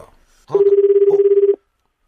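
A single steady ringback tone on an outgoing phone call plays for about a second, warbling in a fast regular pulse, fairly loud, then cuts off into silence.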